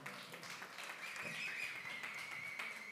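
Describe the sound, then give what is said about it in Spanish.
An audience at Las Cazuelas restaurant in Apodaca, Nuevo León, applauds for three seconds, a dense, even crackle of many hands clapping at moderate volume, with a thin high sustained tone running through the latter part. “Fuerte el aplauso para la,”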